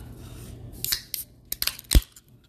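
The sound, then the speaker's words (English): A caffeinated drink can being cracked open: a few faint metallic clicks and scrapes at the tab, then one sharp, loud pop with a short fizzing hiss. No one speaks. “We're, uh, uh I guess, just gonna crack this caffeine.”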